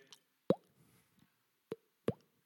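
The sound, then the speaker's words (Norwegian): Three distinct, fairly loud raindrop plops land at uneven intervals against near silence, each a short wet pop with a quick resonant tail, plus a fainter tap at the very start. “Og så begynte det å regne litt, og én regndråpe ble til tusenvis av regndråper.”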